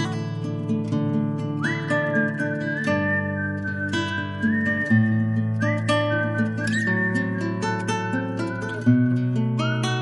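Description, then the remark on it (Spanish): A clear, steady whistled melody carries a tune in sustained, stepping notes, riding on top of a full instrumental accompaniment throughout, with no talking. “Ella guiña un ojo y él sonríe socarrón y silba por la calle una olvidada canción.”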